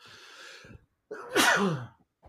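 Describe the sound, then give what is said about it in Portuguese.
A single loud sneeze: a breathy inhale builds up, then a sharp burst that trails off, followed by a brief sniff. No one speaks. “Peraí que eu vou espirrar de novo.”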